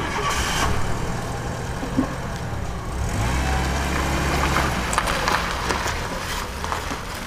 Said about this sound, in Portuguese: Pegou o carro e foi embora.